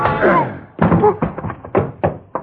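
impact, punch landing

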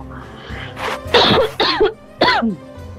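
human body sound, coughing

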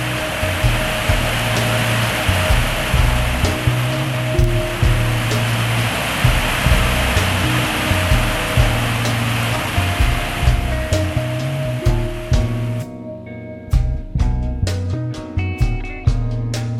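nature, rain falling

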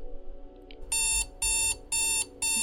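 household object, alarm clock ringing

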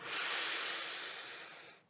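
human body sound, deep inhale

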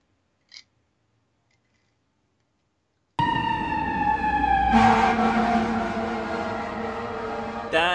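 sound effect, siren sound effect

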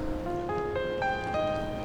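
nature, rain falling

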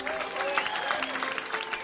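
crowd, thunderous applause

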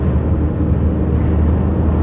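vehicle, car passing close by

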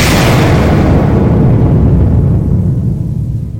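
sound effect, bomb explosion

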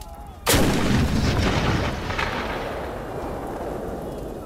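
sound effect, cannon firing

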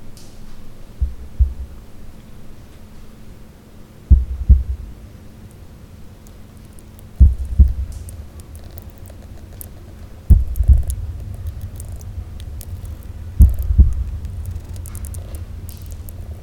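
human body sound, heartbeat

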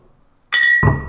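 household object, glasses clinking

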